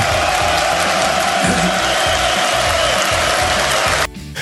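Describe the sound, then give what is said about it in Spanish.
A loud crowd ovation of cheering and applause, a dense, steady roar of clapping and voices that holds for about four seconds, then cuts off abruptly. “Esto se merece una ovación.”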